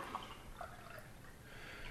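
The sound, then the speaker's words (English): Beer pours steadily from a full Bradley Brew Project can into a glass, a soft continuous splashing hiss with a few gurgling glugs, fairly quiet, with no one talking. “I'm going to give this a quick little pour.”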